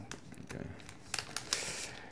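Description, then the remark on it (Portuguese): Crinkly plastic rustling as a zippered plastic package holding a bracelet is pulled open from the top, with a few sharper snaps and crackles over about two seconds. “Tens que abrir assim por cima, tem um zíper.”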